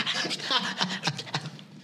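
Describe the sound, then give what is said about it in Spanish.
A person vocally imitates a dog eating greedily: rapid, raspy smacking and snuffling bursts in an uneven rhythm, moderately loud. “¿Has visto cuando, has visto cuando están comiendo los perros?”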